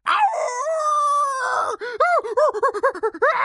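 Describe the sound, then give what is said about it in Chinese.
A voice imitates a big grey wolf crying out in pain after stepping on pins: one long, loud, wavering howl of anguish, then a quick run of about ten sharp, high yelps in a rapid, uneven rhythm. “踩到大头针的大灰狼发出阵阵惨叫”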